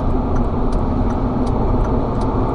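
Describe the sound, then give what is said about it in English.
Steady, loud road rumble of a car pacing alongside in the blind spot on a highway in New York State, a continuous low engine and tire roar with faint higher hiss, no voices. “Stop pacing me in my blind spot. Run your stupid ass off the road.”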